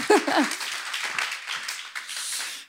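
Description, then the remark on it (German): An audience in a church applauds to welcome parents, with a dense, steady patter of many hands, a few voices calling out at the start, before the clapping cuts off quickly at the end. “Herzlich willkommen, Applaus an euch.”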